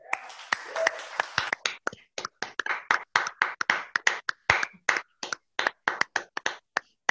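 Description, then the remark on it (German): An audience at a worship gathering in a hall breaks into applause after a prayer, a dense wash of clapping at first that thins into distinct, fairly loud handclaps continuing steadily for several seconds, with no talking over it. “Lass uns mal einen Applaus geben.”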